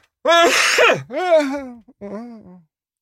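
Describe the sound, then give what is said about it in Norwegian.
A loud fit of throat clearing and coughing from something caught in the throat: a harsh, raspy first burst, then two shorter, strained voiced bursts that taper off, with no talking. “Jeg satt en beef i halsen her.”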